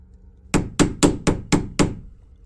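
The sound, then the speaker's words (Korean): Six loud, evenly spaced knocks on a front door from outside, at night around 3 to 4 a.m., each a sharp thud in quick steady rhythm, with nothing else but quiet room tone around them. “그리고 잠에 들려던 그 순간 갑자기 밖에서 현관문을 두드리는 소리가 났다.”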